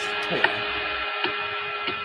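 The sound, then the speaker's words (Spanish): An electric fan drones loudly and steadily, a constant whirring hum with a few faint clicks or knocks, and no voices. “Perdón, es mi ventilador.”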